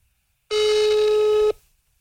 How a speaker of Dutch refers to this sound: Spreek uw bericht in na de toon.